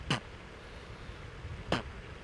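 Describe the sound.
A voice imitates a chair creaking as someone sitting on it rests weight back against the seat, with two short, sharp squeaks about a second and a half apart, fairly loud against a quiet background, with no talking.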